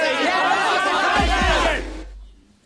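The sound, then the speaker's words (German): A dense crowd of stock brokers shouting and yelling over one another in the office of the firm JT Marlin as stocks soar, heard through an opened office door, loud and chaotic, with a couple of low thumps before the din cuts off abruptly. “Unsere Firma ist fast am Durchdrehen. Ich mach mal kurz die Tür zu meinem Büro auf.”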